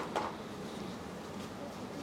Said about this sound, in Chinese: 不然就放下面去。 抽屉。